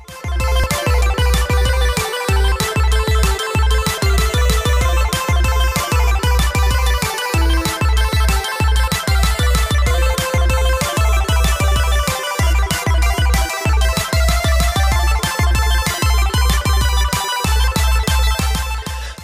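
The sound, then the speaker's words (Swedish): A bright, loud electronic intro jingle with a steady pulsing beat and a repeating synth melody plays continuously for about twenty seconds, with no voices over it. “Men ska vi ta det efter jinglet? Vi kör jinglet.”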